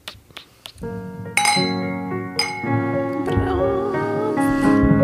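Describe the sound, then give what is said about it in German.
Glasses clink together in a toast: a few quick taps, then a brighter ringing clink whose tone lingers and hums, with faint voices murmuring underneath. “Und Prost.”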